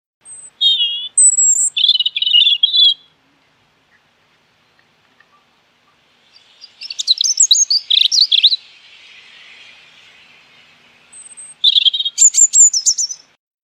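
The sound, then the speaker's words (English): A European robin, as heard in Britain and parts of Europe, sings in clear, high, warbling phrases, three bursts of varied trills and thin whistles separated by short pauses, bright with no other sounds around it. “This is what the European robin sounds like if you live in Britain or parts of Europe, you've probably heard this song a million times without noticing it.”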